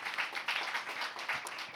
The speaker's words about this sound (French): On applaudit. Merci d'être là.